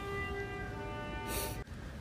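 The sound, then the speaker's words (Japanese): A laboratory chime rings with steady, layered bell-like tones that hold evenly, with a brief breathy hiss near the end before the ringing cuts off abruptly. No one speaks. “まああの研究室のチャイムが鳴りましたんで一止めましたけれども”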